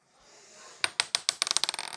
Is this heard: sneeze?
no